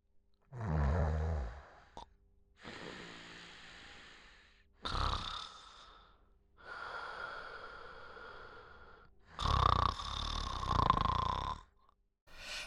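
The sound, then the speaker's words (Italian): Heavy, weary breathing of an exhausted man asleep, slumped on a peeling red bench near a lake with his head resting on his chest, several slow inhales and exhales in a loose rhythm, fairly soft, some breaths rasping toward a light snore, with no talking. “La testa reclinata sul petto si alza e si abbassa dolcemente, seguendo il respiro di un sonno affaticato.”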